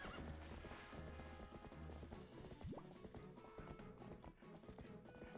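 A horse gallops steadily, its hooves clopping in a fast, even rhythm throughout, with a brief whinny midway, all set against a dense, continuous background bed of sound.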